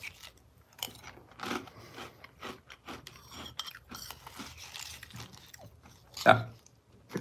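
Crunchy chewing of dry Cinefuego Toast Crunch cinnamon toast cereal, with repeated crisp bites and crackling munches over several seconds and one louder crunch near the end, no talking.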